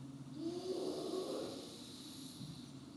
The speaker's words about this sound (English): Breathing in, breathing out slowly. Breathing in